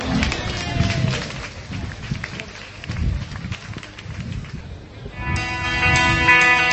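A crowd applauds with steady, dense clapping for several seconds, and a few voices mix in. Near the end, sustained musical tones begin to play beneath the fading applause.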